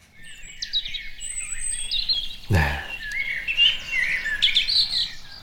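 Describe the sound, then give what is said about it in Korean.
Bright, high birdsong with repeated chirps and trills layered throughout, steady, with a brief spoken word partway in. “새소리 한 번 더 들을까요?”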